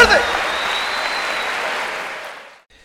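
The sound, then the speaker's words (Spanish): An audience breaks into dense, steady applause, a loud wash of many hands clapping for a couple of seconds before it quickly dies away. “Fuerte aplauso, vamos con la pregunta, vamos con la pregunta.”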